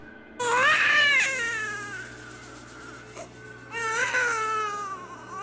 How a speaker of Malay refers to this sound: terdengar bunyi suara bayi yang menangis. Bunyi dia halus dan kedengaran agak jauh.